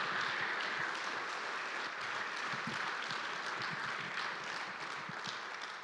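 Sustained applause from an audience, a dense wash of many hands clapping at a steady, fairly loud level, tapering slightly toward the end with no voices over it.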